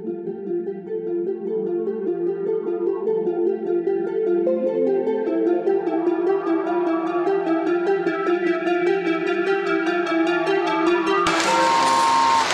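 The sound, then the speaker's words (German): A clarinet plays a flowing melody of sustained, bright-edged notes over soft orchestral accompaniment, steady and fairly loud throughout, with a sudden brighter, noisier swell right at the end. “Die Katze äh. durch die Klarinette.”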